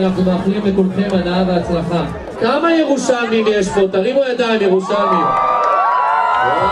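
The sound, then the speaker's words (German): Participants of the 5000-metre run at the Jerusalem Marathon cheer and whoop together at the start line in front of the Knesset, a dense, loud mass of overlapping voices, with high rising shouts and a sustained, swelling roar toward the end. “Und das ist der Jubelruf der Teilnehmer für den 5000 Meter Lauf beim Jerusalem Marathon.”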